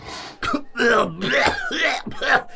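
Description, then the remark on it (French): A voice performs a fit of hacking, sputtering coughs, several raspy bursts in quick succession, fairly loud, like someone choking on smoke, as a guard, a scarred boar, sniffs the children and starts coughing. “Il les renifle et se met à tousser comme s'il avait aspiré de la fumée.”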